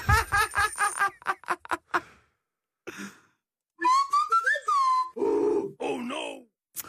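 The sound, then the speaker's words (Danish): A newly acquired phone ringtone plays, made of loud, rapid vocal-like grunts, then a short pause and longer groaning, sighing tones with a gliding whistle-like pitch, clear. “jeg har lige fået ny ringetone. Prøv at høre den her.”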